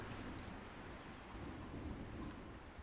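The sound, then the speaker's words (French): A steady thunderstorm: dense rain hisses continuously while low, rumbling thunder rolls underneath, fairly loud, with no voices present. “Vous décidez de vous lever de là où vous êtes et d'avancer lentement en direction de l'orage sans peur, sans inquiétude, juste une pure confiance dans le fait que vous êtes en sécurité et au contrôle.”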